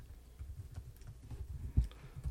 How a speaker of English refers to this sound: Can you hear him clicking away on his on his Google account? That's my fake typing.